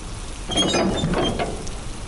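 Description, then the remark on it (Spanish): A wrought iron security gate with an intercom creaks open in the rain, letting a car through, with a harsh, high-pitched squeal over a grinding mechanical rattle. The sound swells for about a second and a half before easing off. No voices. “Se abrió produciendo un desagradable chirrido y el coche avanzó”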